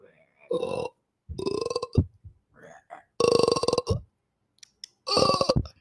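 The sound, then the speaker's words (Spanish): A child's voice imitates a frog croak with four loud, throaty, burp-like bursts, separated by short pauses and a few softer vocal sounds. “¿Y cómo hace la rana? ¿Qué sonido hace la rana?”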